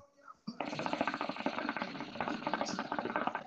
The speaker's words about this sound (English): Who's shuffling cards, that, my nigga?